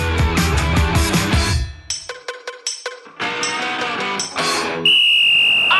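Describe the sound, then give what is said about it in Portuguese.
A referee's whistle at the start of a game gives one long, steady, high-pitched blast at the end, following a loud burst of music and punchy percussive hits. “Vamos fazer o seguinte, bora pro jogo que o árbitro já está com o um apito em riste.”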